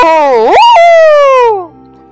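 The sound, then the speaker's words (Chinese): A human voice imitates the big bad wolf of a story roaring as it charges at the animals: one loud, drawn-out 'aooo' that swoops upward in pitch, holds, then slowly slides down and fades out, with no other sounds. “大野狼站起来，挺挺身子，他深深地吸了一口气，然后大声地吼叫着冲向动物们：“嗷！”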